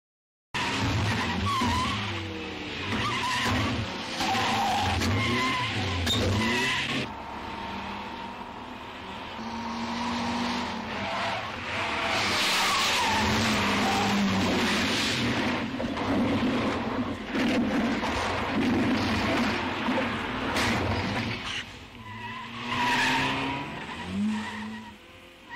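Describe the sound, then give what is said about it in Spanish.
Two getaway cars skid and race off after an armed bank robbery in Granollers, tires squealing in long, loud, overlapping screeches over roaring engines for nearly half a minute, with no voices. “Atención, cuatro individuos armados han atracado un banco en Granollers, dándose la fuga en dos coches probablemente robados.”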